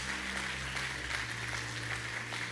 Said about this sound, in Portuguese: Glória a Deus. Você pode dar uma salva de palmas. Ele é Deus.